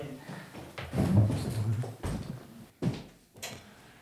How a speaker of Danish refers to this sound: Ja, jeg finder det frem, så jeg rumler lidt her på stolen, så jeg ved ikke, om det går i.